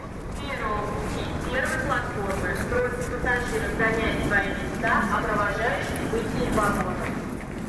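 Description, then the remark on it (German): A busy railway station atmosphere at the Belorussky station in Moscow, with a steady wash of crowd noise and voices talking and calling over a dense, continuous background rumble. “Dieser Bahnhof auf Russisch der Belorusski wachsal mit seinem türkis und weiß bemalten Empfangsgebäude aus der Zeit des letzten Zaren ist Moskaus Tor zum zentralen und westlichen Europa.”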